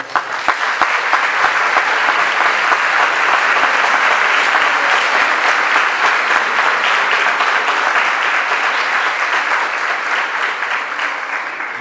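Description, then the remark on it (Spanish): A large audience at Colegio Valencia claps steadily and loudly for about twelve seconds, a dense, continuous wash of applause for the school's director that holds its intensity without pause and with no voices on top. “Por eso yo quisiera un aplauso para él.”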